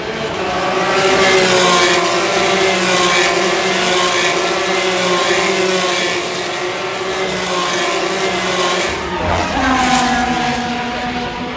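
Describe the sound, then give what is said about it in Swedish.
A Formula 3 race car engine screams at high revs, a loud steady harmonic whine that holds pitch, then dips and climbs again near the end as the car shifts and accelerates. “Här är Formel 3.”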